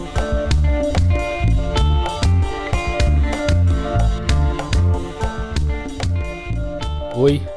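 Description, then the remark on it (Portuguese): Instrumental theme music by a musician plays fairly loud, driven by a steady, punchy drum beat over a warm bassline and sustained melodic tones, with a quick rising flourish near the end. “a música que você está ouvindo é do …”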